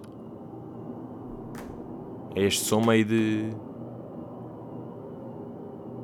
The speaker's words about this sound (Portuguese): o mais provável é estarem mais a par do white noise, não é? Que é aquela chuva e que dá boa da jeito a pessoas ou para dormirem ou para. Não é? Vou meter aqui um bocado. É tipo isto.